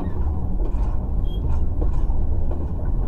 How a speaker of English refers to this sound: The train has really picked up speed now.